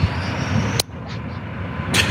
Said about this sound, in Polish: oczywiście słyszą Państwo, to kolejny pociąg, koleje mazowieckie przejeżdża przez stację Falenica.